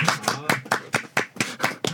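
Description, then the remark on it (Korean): Several people on a baseball talk show clap to welcome a guest reporter, in a quick, steady rhythm, about four sharp claps per second, moderately loud and bright, with no talking over them. “리를 예 박수로 모시겠습니다.”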